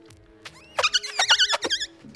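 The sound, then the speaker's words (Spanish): Loud, high-pitched tire screeches in a string of short, wavering squeals, as if a car is skidding through a drift, with a low steady engine hum underneath and no talking. “¿Puedes hacerme un derrape?”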